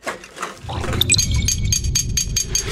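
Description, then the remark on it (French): Empty metal cans being taken to a deposit return clink and rattle together in a busy, continuous jumble, with bright metallic taps scattered over a rustling, clattering bed, fairly loud throughout. “Bon, ben moi, je m'en vais à la consigne avec mes canettes.”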